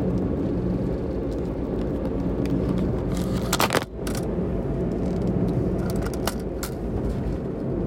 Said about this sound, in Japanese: 今ホルダーからスマホがガチャコなりました